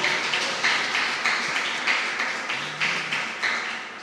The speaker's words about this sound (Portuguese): Vamos aplaudir a Jesus, porque Ele é muito bom, Ele é muito bom.